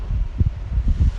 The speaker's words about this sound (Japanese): そしてあの今回も音入ってますかね波の音ね波の音いいですよね